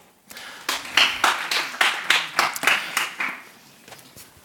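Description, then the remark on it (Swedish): A short round of audience applause, given on cue after people answer what colour a dress is, a burst of overlapping claps rising quickly and holding steady for a few seconds before thinning out and fading. “En applåd.”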